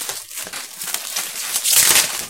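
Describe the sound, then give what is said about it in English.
Robust plastic shrink wrap crackles and crinkles as it is pulled and torn from the box of Cthulhu Wars, a Sandy Petersen board game, a steady scratchy rustle that grows louder and sharper near the end, with no voices. “it's quite a robust shrink wrap.”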